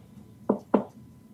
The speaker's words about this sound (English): So you can just basically unclasp the lid. Um, it's almost like a little little standing coffin. Before I do that, I'm gonna like knock on it.